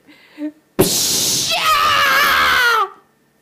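A person lets out a loud, anguished scream of pain lasting about two seconds. It is harsh at first, then rises into a strained, wavering wail before cutting off. A brief faint vocal sound comes just before.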